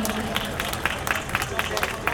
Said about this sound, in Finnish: Kyllä, aina saa taputtaa näille rohkeille puheenvuoroille, tärkeille puheenvuoroille.